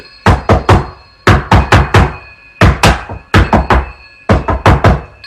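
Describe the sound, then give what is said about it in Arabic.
Loud, forceful banging on an office door in rapid bursts of three or four heavy knocks, each group separated by a short pause. No voices, just the repeated thuds. “هنا بدأت أخبط بصوت عالي أقرب للرزع على الباب”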